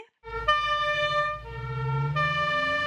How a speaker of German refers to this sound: Hier kommen drei Sirenen, aber nur eine davon gehört zur Polizei. Welche ist das? A. Ich glaube, das ist Feuerwehr. B.